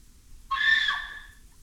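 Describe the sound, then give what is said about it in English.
A single shrill, piercing scream bursts out suddenly, holds for under a second with a wavering pitch, then trails off. It stands alone against faint low background noise, with no talking. “There is a scream, a squelch.”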